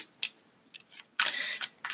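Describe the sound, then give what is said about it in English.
Crisp papery flutters and riffles of a new Modern Witches Tarot card deck being shuffled: a few short snaps early on, then a longer, louder burst of rapid riffling, with no talking. “I am shuffling the Modern Witches Tarot.”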